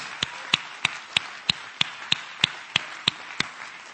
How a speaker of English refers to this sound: Hallelujah. Clap your hands to the Lord. Hallelujah.